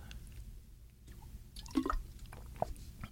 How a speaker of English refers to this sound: And I don't know if you can hear that, but I am opening up a water because my mouth is dry because I've done this intro about a thousand times.